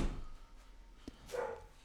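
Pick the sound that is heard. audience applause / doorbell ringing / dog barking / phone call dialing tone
dog barking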